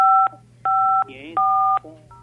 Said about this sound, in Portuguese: Acho que estão ligando para o senhor.